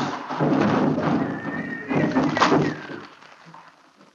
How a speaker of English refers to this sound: The wagon smashed into a great rock buried in the snow lost its front wheels, and turned over on its side, jammed against a stone.